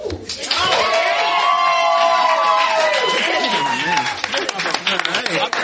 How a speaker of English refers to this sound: I'm gonna clap for that song too. I'm gonna clap for that as well.